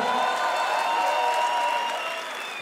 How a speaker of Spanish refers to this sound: más fuerte aplauso. Más fuerte, más fuerte, más fuerte, más fuerte, por favor.